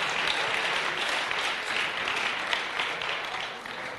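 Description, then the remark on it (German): Sustained applause from a crowd, a dense steady wash of many hands clapping at even loudness for about four seconds, tapering slightly at the end, with no voices standing out. “Wow, Applaus.”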